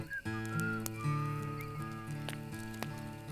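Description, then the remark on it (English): A voice imitates a bird with a few short, bright whistled chirps over steady, droning instrumental music, the whistles light. “Then the dog went, Then the bird went.”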